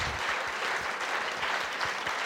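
An audience applauds steadily, a dense wash of many hands clapping at a fairly loud, even level throughout, with no voices standing out.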